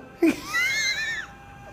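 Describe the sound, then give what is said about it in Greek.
A pained, strained scream from the actor playing Batman in a film: a short grunt, then a high, wavering cry lasting about a second before it drops away, heard alone. “Η κραυγή είναι του ηθοποιού που κάνει τον Batman.”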